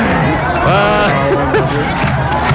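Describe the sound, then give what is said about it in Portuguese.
A dense crowd hubbub of Ceará football fans packing the stands on a working day for a third-division match, many overlapping voices chattering and calling out at a steady, loud level with no pauses. “A torcida do Ceará lotou no dia útil, né?”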